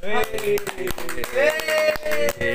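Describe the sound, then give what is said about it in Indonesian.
Irregular hand clapping, a quick scattered run of claps, mixed with voices singing or talking over them. “Oke, oke, tepuk tangan next,”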